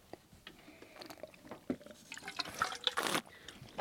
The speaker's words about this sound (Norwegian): Slurp og spytt. Ja. Vi må jo spytte. Ja. Og smatt.